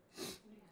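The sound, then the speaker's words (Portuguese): A single short, breathy sneeze bursts out and fades quickly, fairly quiet, followed by a faint low murmur. “Então, saúde, filho.”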